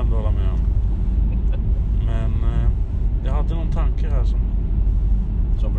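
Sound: car driving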